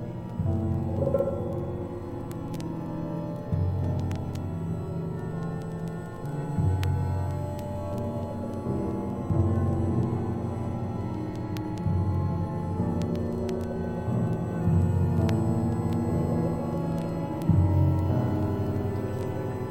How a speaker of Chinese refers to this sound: 刚才我们听到的那个曲子，应该是这张唱片最有名的一首歌，被传唱度最高的一首歌。